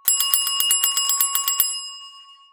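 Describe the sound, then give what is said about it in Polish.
A small bell rings in a rapid trill of about a dozen quick, bright metallic strikes, then its high tone lingers and fades away. No one speaks. “Dzwonek, z pewnością dzwonek, najchętniej elektryczny.”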